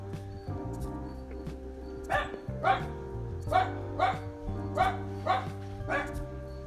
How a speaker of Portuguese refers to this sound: eu vou transformar um cachorro num pastel daqui a pouco, se não parar de latir. Vou esperar tranquilamente parar de latir pra voltar a falar.